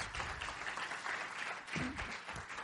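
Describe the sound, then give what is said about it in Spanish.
A crowd claps steadily, a dense patter of many hands that holds fairly even for a few seconds, with a brief voice murmuring underneath partway through. “Un aplauso, por Gracias a todos.”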